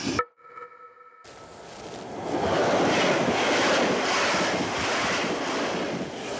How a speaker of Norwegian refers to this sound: Toget bare suser forbi Dilling stasjon noen kilometer syd for Moss. Stasjonen er nedlagt for mange år siden.